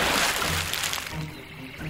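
Water sloshing and splashing as a girl's hand pulls a bag up out of a lake, loudest in the first second, then settling into quieter trickling and dripping.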